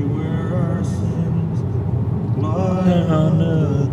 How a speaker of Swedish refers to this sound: Okej, vi har precis passerat Nyköping, sitter i en bil som eh, bara har CD-skivor,